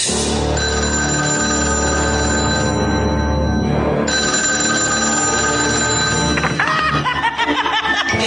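A telephone rings loudly and steadily in a sustained, bright electronic tone as part of an answering machine gag, with snickering laughter breaking in near the end.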